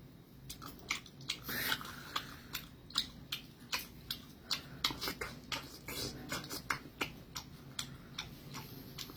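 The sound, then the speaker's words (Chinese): Someone imitates loud, smacking chewing with their mouth: a steady run of sharp, wet clicks, roughly two per second, for about nine seconds with no talking. “那挤牙膏跟那个吃东西比较大声，其实我比较在乎吃东西大声这件事。”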